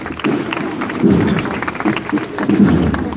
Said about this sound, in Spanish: el aplauso de quienes se congregan